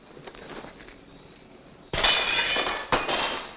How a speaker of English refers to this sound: when Mary throws that stone through the window of the abandoned house